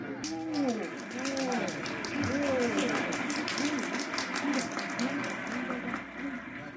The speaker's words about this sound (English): Yes, ladies and gentlemen, this is a happy, laughing crowd along Fifth Avenue today. A true reflection of the great sense of humor and good nature that makes America the place it is.